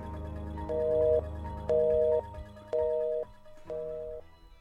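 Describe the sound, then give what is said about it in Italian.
Bells ring in four evenly spaced bursts, each a steady, mid-pitched tone that starts with a sharp strike and stops abruptly. The rings are fairly loud, with no talking. “Come potevano mancare le campane?”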